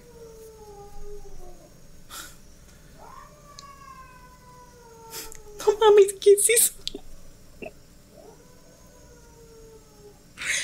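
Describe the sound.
A cat yowls in long, drawn-out wails that slide downward in pitch, repeated several times, with a burst of startled human talk and exclamations in the middle.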